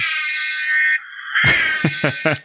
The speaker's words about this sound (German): Ach, das ist so, so toll, dass es auch halt einfach das Originalgeräusch ist und nicht einfach so ein, so ein, so ein x-beliebiges Spielzeug-Blaulicht-Sirenen-Ding, weißt du, wie?